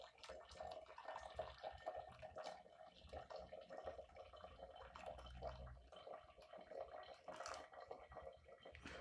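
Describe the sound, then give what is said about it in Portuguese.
Coffee dripping through a filter as hot water is poured over it: a steady trickle and patter of liquid running continuously, with no talking. “Eu acho esse som do café tão hipnotizante.”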